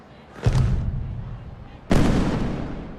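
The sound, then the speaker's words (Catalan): Two loud firework warning-rocket blasts, the second warning, about a second and a half apart, each a sharp booming crack that trails off into a long, rumbling decay. “Segon avís.”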